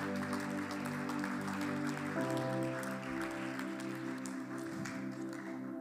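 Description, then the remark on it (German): A church audience applauds for Jesus steadily for several seconds during an evening worship service, a dense crackling clatter of many hands, while sustained keyboard chords hold and shift underneath. No one speaks. “Lasst uns ihm einen Applaus geben heute Abend.”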